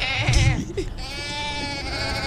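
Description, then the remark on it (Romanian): A sheep bleats with a long, wavering cry that holds steady for a couple of seconds, fairly loud, with a brief rustle or thump near the start. “Păi deci este un clip aici cu oaie.”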